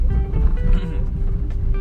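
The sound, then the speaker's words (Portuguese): Steady low rumble of a car interior while driving, a constant engine drone with faint tonal hum above it, filling the whole stretch with no voices. “E Beleza, saí de casa, tô aqui no carro agora.”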